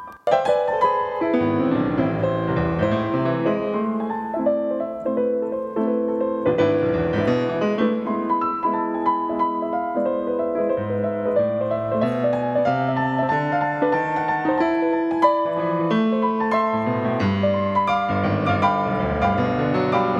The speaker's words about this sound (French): ce serait dans l'opus 111 de Beethoven, deuxième mouvement, vous avez, euh, à l'occasion d'une assez longue variation, une œuvre qui n'a pas eu besoin d'être dépoussiéré parce que Beethoven s'en est chargé lui-même. Je vous le fais entendre.